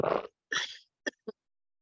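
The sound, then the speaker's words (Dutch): A woman coughs: two harsh, rasping bursts followed by two shorter, quieter coughs, then silence. “Ze moest even hoesten, maar ik dacht, er valt nu van de stoel.”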